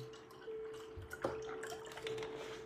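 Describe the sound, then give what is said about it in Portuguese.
Water trickles and splashes steadily into a glass, a soft continuous pour with a faint rising tone and small drips and clinks, with no talking. “Deixa eu beber uma aguinha e colocar mais um pouquinho aqui.”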